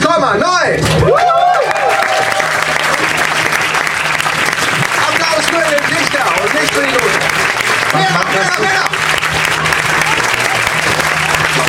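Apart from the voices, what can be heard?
audience applause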